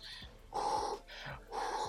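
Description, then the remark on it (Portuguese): A voice imitates the heavy panting of footballer Aládio, tired while clearing the ball under Grêmio pressure during a match. Quick, breathy huffs repeat in an uneven rhythm, loud, alone with no other sounds. “O Aládio tirando a bola e respirando assim, ó”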